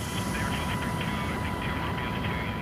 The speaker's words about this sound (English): This Black Hawk is part of a larger exercise in the skies over Hawaii's islands designed to mimic a real island hopping campaign, say off the coast of China or Taiwan.